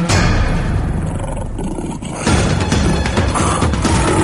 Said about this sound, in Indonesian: ambek ka kuring duaan sorate ngomongnya bari dituntungan ku ngegerem